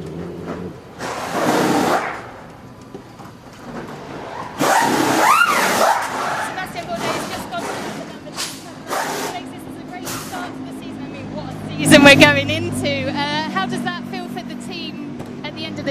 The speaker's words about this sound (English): Uh, motorcycle.